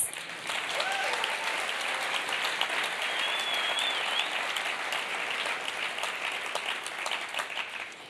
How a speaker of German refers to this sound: ihr habt eine wunderbare Worship Band. Gebt ihnen doch einfach mal einen Applaus.